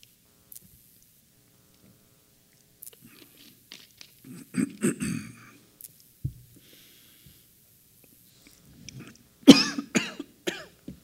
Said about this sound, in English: Excuse me. coughing a lot.